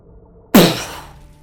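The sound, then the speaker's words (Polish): A voice mimics a sudden explosion of gas set alight by a spark: one sharp, loud burst of breathy noise that hits abruptly after silence and fades away over about half a second. “Widzisz, że gaz poszedł ogniem, walnął, kilka kamieni się osunęło.”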